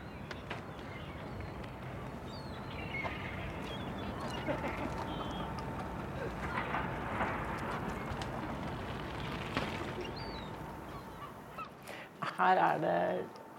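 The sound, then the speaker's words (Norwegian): A flock of hundreds of common eiders heading north, the males in breeding plumage, calls continuously in a dense, overlapping chorus of cooing and moaning notes. One louder call rises near the end. “Eh, hundrevis må det være av, av ærfugl her. De er på vei nordover.”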